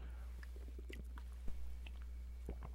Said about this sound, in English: have to slurp it off the top just to keep it from spilling all over yourself.